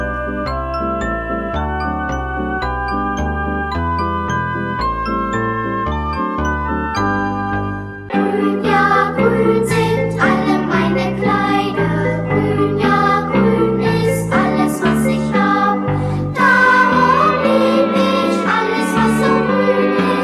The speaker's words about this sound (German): Aber davon ist im Kinderlied Grün, Grün, Grün nichts zu hören. Musik